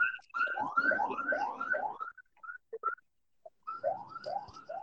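A loud, fast yelping ambulance siren sweeps upward over and over, pauses briefly with a few scattered chirps, then resumes its rapid rising wail.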